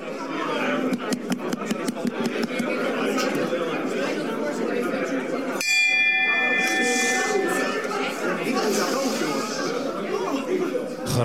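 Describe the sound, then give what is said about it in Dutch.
A chairman's bell rings out once to call order at a council meeting, a sharp, clear, ringing tone that cuts through noisy overlapping chatter and lingers for a couple of seconds as the crowd keeps murmuring. “En het werd, eh, het werd uiteindelijk door de bel werd het, eh, wat, eh, wat enigszins rustig.”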